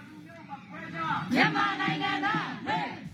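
A protest crowd of many voices chants the rallying cry "Doje", meaning "our rights", in unison, loud and rhythmic, with rising shouted syllables swelling together over a dense, sustained roar of voices.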